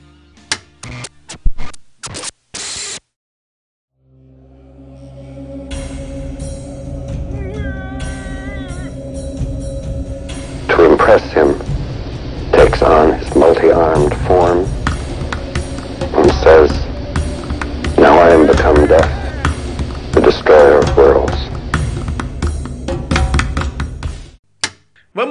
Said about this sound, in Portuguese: Solta a vinheta, mandraqueira!